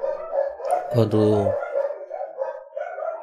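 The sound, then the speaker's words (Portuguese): A dog lets out a loud bark burst around the middle, with more barking continuing more faintly beneath a person talking throughout. “esses cachorros, só peço perdão pelos cachorros, gente.”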